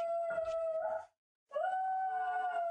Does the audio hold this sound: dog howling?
yes